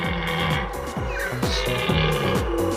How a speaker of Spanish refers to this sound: Eso parece más un eructo, tío. No, no, no, que sí que es la berrea.